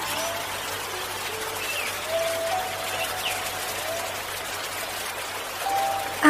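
Water trickles and burbles steadily in a continuous wash, with a few faint thin whistling tones drifting over it now and then.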